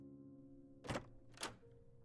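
A house door is opened after the doorbell rings on a Sunday morning, with two solid clunks about half a second apart, over a steady low background hum. No one speaks.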